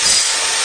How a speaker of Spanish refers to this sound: Este es el ruido de las reformas